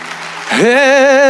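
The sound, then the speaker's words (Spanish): A standing crowd claps to the Lord in a steady wash of applause, then a voice rises into a sustained sung note with vibrato that rings out over the clapping. “Ponte de pie, dale un aplauso al Señor.”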